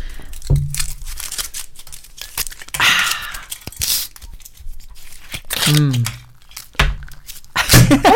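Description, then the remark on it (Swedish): Foil tearing and crinkling as small bottles of alcohol-free sparkling wine, two per person, are popped open to celebrate, with a few short hissing bursts and clicks scattered over about eight seconds, and brief voices murmuring between. “vi har ju två små flaskor var här mm, med alkoholfritt bubbel.”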